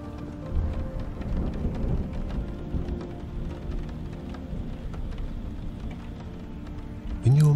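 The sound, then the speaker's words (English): Steady rain hisses throughout while deep, rolling thunder rumbles low underneath, heaviest early on. A brief voice starts right at the end. “Sleep as a thunderstorm and rain passes”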